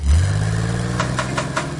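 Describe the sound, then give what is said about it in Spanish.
A car engine catches and settles into a steady, low rumble, with a few evenly spaced revving pulses near the end. No one speaks. “prender un carro es algo más que prender un carro.”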